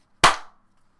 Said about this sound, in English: Okay, let's clap so that we can. Oh yeah, so we know where to cut back then. Three, okay. two, two, one.